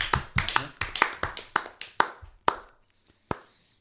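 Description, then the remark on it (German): Hand clapping: a quick run of about a dozen sharp, crisp claps that gradually slows, thins out and ends with one last isolated clap after a short pause. No talking. “Einen kleinen Applaus innerlich, gerade wenn ihr euch nee, hört.”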